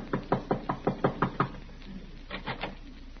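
A quick run of about eight light, even knocks on an apartment door, tapped a bit nervously, then a short pause and three softer, hesitant taps. The knocking is alone, with no voices.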